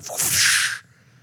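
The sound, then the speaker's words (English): A voice imitates a whip slap with a single sharp, breathy hiss lasting under a second, fairly loud, then it cuts off to quiet. “You gotta have that slap.”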